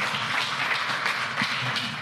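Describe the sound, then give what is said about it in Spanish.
An audience applauds loudly, a dense, steady wash of many hands clapping at once with no pauses, filling the whole stretch without any voices standing out. The applause is given to the King of Glory after a prayer in a church service. “Den un aplauso fuerte al Rey de la Gloria.”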